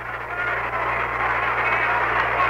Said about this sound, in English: Now, as the count goes full, the anticipation in the crowd, you can hear the murmur and the buzz. A little start of staccato clapping way up to the right side in the top of that upper deck.